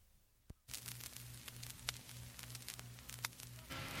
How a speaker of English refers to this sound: listen out for that nice vinyl crackle at the beginning.